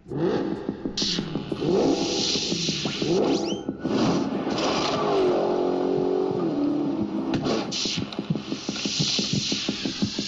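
A powerful muscle car engine of nearly 800 horsepower revs loudly, its deep rumble rising and falling in repeated bursts of throttle with a rough, pulsing idle between revs.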